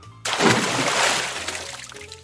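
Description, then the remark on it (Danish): A sudden loud splash as a bride loses her balance and falls headfirst from a quay into a canal, followed by a couple of seconds of churning, sloshing water that gradually settles, without speech. “Og bruden hun bliver så forskrækket, at hun drejer hurtigt omkring, mister balancen og ryger på hovedet lige ned i vandet i kanalen.”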